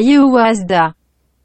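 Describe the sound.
A brief burst of a male voice delivering a rap line from a Korean rap song, played as a clip in a song-guessing quiz, lasting under a second with a steady, tuneful cadence, then cutting off abruptly into silence.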